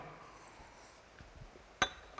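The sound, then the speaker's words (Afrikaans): A single sharp clink of a glass being set down on a hard surface during a sermon reading, fairly crisp, rising briefly above quiet surroundings with faint low rustling before it. “Hulle het vir my 'n glas neergesit vir oggend.”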